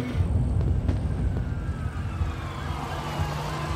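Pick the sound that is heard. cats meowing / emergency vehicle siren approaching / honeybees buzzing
emergency vehicle siren approaching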